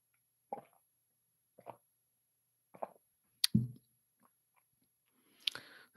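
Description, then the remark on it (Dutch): Quiet sips and swallows of water: three soft gulps about a second apart, then a small knock like a glass being set down, and a last breathy slurp near the end. “Ik moet een slokje water hebben.”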